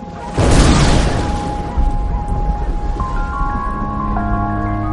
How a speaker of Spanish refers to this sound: Suena como truenos. ¿Qué suena como truenos?